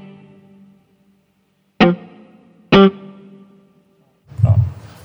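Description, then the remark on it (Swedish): A short spring reverb effect on an instrument: a low sustained tone, then two sharp struck notes with brief, slightly metallic decaying tails, and a noisier burst at the end. No one talks. “Nu har jag något kort spring.”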